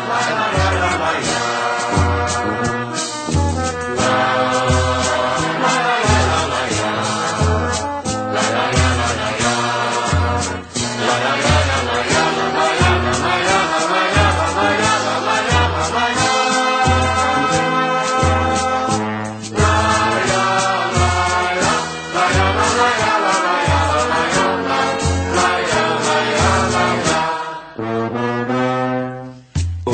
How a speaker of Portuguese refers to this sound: Vamos passar a escutar com carinho as suas duas mel melodias.